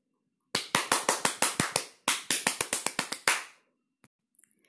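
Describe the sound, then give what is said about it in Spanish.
A quick run of enthusiastic hand claps, about twenty sharp bright claps in two bursts with a brief pause between, loud and alone, followed by a few faint small ticks. “Niala se pone a aplaudir súper contenta.”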